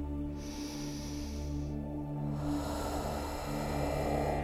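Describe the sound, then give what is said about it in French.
A slow, deep belly breath drawn in, inflating the belly, a brief pause, then a long airy exhale relaxing the belly, steady over a low background hum, with no talking, during a guided relaxation exercise. “Commençons par faire ensemble deux respirations en gonflant le ventre à l'inspiration, en relâchant le ventre à l'expiration.”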